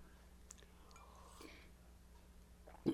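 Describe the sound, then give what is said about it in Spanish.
Someone quietly sips a drink from a small cup, with soft mouth and slurping noises, ending in a short, slightly louder gulp. No one speaks. “Paisanos, me estaba echando un traguito en mi tacita de Pelter y me acordé.”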